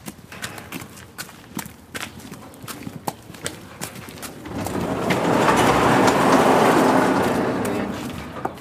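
Horse hooves clip-clop at a steady walking rhythm on a riding hall floor, then a rising broad rushing noise swells in and partly covers the hoofbeats.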